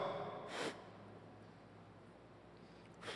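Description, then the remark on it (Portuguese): Two short, breathy puffs of someone blowing air onto embers under the ash to rekindle a fire, separated by a few seconds of faint background hiss. “É muito mais fácil você tirar uma cinza que está por cima, dar uma sopradinha e o negócio pega de novo”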